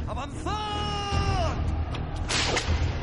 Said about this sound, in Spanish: Chasquido de látigos.